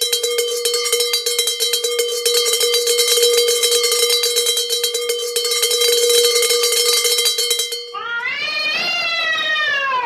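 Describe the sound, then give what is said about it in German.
A small bell rings rapidly and continuously, loud, for about eight seconds, then stops as a cat lets out a drawn-out meow at the end. “Magst du vielleicht heute mal so ein kleines Glöckchen mit unterlegen bei der Produktion am Schluss?”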